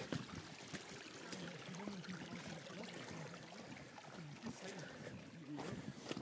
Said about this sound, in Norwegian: Dere hører jo åssen vannet renner. I praksis nå så er vi på vei opp en bekk.